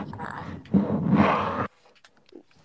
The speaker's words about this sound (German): Wer, wer atmet so ins Mikro? Oder ins Handy?